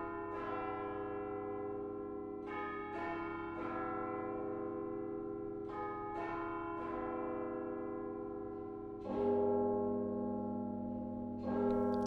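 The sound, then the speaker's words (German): Three church bells of the Reformed Church in Aarau peal together in an overlapping, resonant wash, with repeated strikes at an uneven rhythm and long ringing tones; a deeper bell joins louder near the end. No voices. “Von diesen drei Glocken von der reformierten Kirche Aarau, die man da hören”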